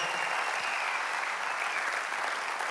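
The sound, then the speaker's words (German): Steady applause from an audience fills the whole stretch, a dense, even wash of many hands clapping at constant loudness without any voices standing out. “Man doch diesen Frauen und Männern hinter der Bühne und unten beim Raum, wo Multimedia machen, auf allen großen Applaus geben.”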